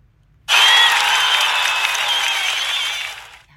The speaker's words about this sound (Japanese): えー、ということで皆さんなんと今日150回目だってすごくないちょっと拍手しちゃうよ。パチパチパチパチパチパチすごい